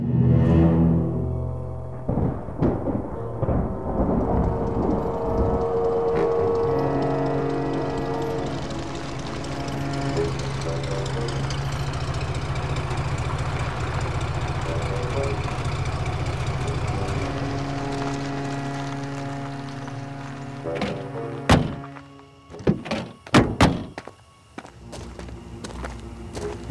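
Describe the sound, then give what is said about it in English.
A motor car engine idles with a steady low rumble for a long stretch, then cuts out and a few sharp door thunks follow near the end as its occupants leave the car on Tempest Mountain. “left the silent motor car and tramped up the last mound covered reaches of Tempest Mountain”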